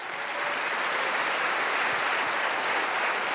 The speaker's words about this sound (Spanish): Alguien tiene que aplaudir más que eso.